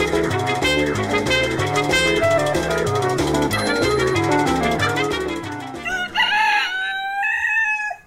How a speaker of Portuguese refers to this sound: Porra, tem galo agora cantando no quintal do vizinho, bicho. O que, que é isso? Virou granja essa rua? Não adianta ficar no isolamento se o galo não deixa a gente sossegado.